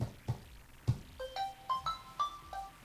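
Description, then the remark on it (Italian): A few dull thumps, then an alarm clock's electronic melody plays, a quick run of bright, clear tones stepping up and down, alone with no voices. “Oh, è la sveglia questa.”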